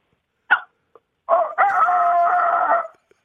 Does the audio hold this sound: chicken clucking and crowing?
yes